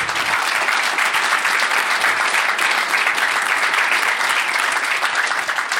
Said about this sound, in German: Hier einen Applaus bitte einschieben.